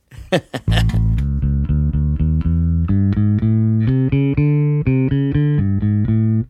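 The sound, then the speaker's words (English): An electric bass plays a run of sustained, evenly spaced notes through an effect that smooths away the pluck, so each note switches on like a synth or keyboard bass. It is loud. “I mean, it almost doesn't even sound like I'm plucking. It sounds like I'm turning a note on like a keyboard bass right.”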